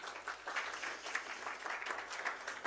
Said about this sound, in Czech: Co kdybychom jim zatleskali, když tady nejsou?